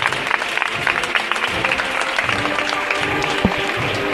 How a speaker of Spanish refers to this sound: Tres pasitos de frente, el público que aplaude.